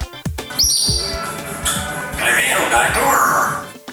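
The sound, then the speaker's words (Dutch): A parrot mimics human speech in a squawky, garbled voice, saying "De wereld draait door", the name of a Dutch TV programme, played as a sound effect in a quiz; a short burst of talk-like syllables with shrill chirping tones, loud, with a few sharp clicks at the start. “kan jij ontrafelen wat de papegaai zegt?”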